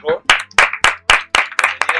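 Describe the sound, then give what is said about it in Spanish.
A short burst of applause for a female guest on a show: about eight sharp, steady claps in quick rhythm, fairly loud, with a voice murmuring or cheering faintly underneath. “Pues bueno, un aplauso para nuestra invitada”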